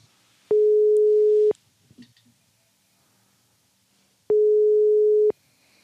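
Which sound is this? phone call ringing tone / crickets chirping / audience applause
phone call ringing tone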